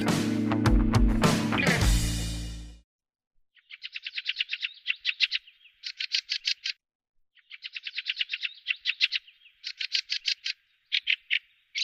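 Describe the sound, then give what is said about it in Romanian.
A song thrush sings loud, clear phrases, each a quick series of repeated notes, given one after another with short pauses, following a brief burst of loud music at the start. “De primăvara de vreme și până la mijlocul verii, una din cele mai plăcute, dar și mai răsunătoare voci din corul dimineții este cea a sturzului cântător cânta și seara, interpretându-și trilurile din vârful copacilor sau de pe acoperișul caselor.”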